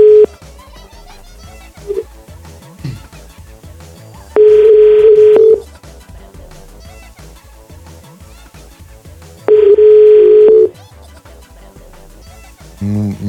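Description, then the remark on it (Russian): A phone ringback tone sounds twice, each a steady, loud electronic tone lasting about a second with a pause between, over a quiet background of faint rustling and brief noises. Someone is calling a girl, and the number does not answer. “Солнышке звоню уже.”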